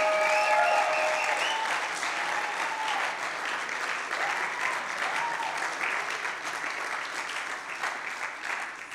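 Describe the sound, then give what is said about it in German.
Sustained applause from a large audience welcoming a guest, a pastor, fills the whole stretch, a dense steady wash of clapping that stays loud and even, with a few brief whistles near the start and no talking. “Applaus willkommen heißen.”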